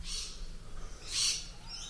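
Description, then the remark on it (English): A brightly coloured parrot with green, red and blue feathers squawks outside by a big tree, two harsh, screechy calls with a short pause between them, over a low background rumble. “sorry can you hear that it sounds like a parrot's being murdered outside the room all right guys leave it out I live next to a big tree.”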